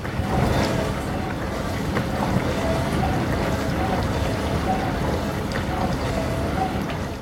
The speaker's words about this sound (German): und man hört so ein Geräusch da. äh, und da drinnen so ein Uhuhu. Uhuhu. Mhm. Und das mhm. war meine Spülmaschine und ja. ich stand davor und denke, was macht die denn für Geräusche?